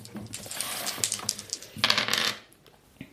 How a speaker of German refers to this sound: Dafür gibt es eine Tabelle. Natürlich. Auf der du mit einem W100 würfelst.